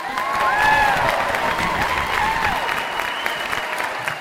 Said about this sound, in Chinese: 哇，这个他一来，你看大家欢呼声啊，拼命叫好啊！哇，真是不容易。